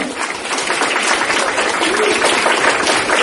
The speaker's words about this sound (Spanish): Un aplauso